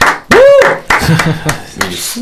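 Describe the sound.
Short bursts of clapping come through in a few uneven waves, with a rising-and-falling vocal whoop over the first burst and voices mixed in.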